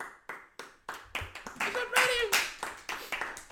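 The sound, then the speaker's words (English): Hands clap in a quick, steady rhythm, sharp slaps following one another for several seconds, with a brief voice or cheer rising over the clapping midway through. “Hope everyone at home is applauding too.”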